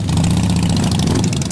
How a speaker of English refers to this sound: Some think the loudest thing out here is the roar of the bikes.